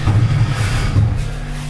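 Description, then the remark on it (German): An already unfolded folding chair, one of two, is pushed into place across the floor, a low, steady scraping rumble with two slightly stronger surges, heard alone without any talking. “Ja, die aber schon ausgeklappt sind. Die brauche ich halt nur runterschieben. So, und jetzt schiebe ich mir einen Stuhl zurecht.”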